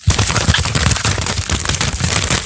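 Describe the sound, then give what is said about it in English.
Loud crinkling and rustling of paper as a mail sack full of listener mail is pulled open, a dense run of sharp crackles and scrapes that continues without pause for a couple of seconds. “They don't believe we have a, a, mail sack until they actually hear you opening it up.”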